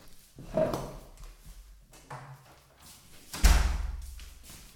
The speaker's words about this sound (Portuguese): sempre que entra alguém, vou só fechar a porta, aí.